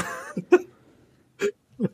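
A quick series of sneezes: about three short, sharp, breathy bursts, the first preceded by a brief voiced intake, with pauses of quiet between them. No talking.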